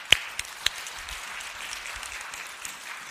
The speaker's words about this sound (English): And can you just not find another awesome reason to give thanks with that beautiful presentation of our children. Let's just give another clap offering to God for what.